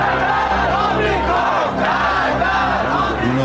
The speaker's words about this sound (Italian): Man mano che ci avvicinavamo, però, cominciamo a sentire un rumore assordante, che quasi sovrastava quello dell'aereo. Era il rumore della folla.